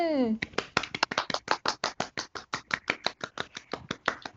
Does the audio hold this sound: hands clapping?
yes